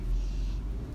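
Motorcycles rumble past outside, a steady low engine drone heard from a moderate distance, with no one speaking over it.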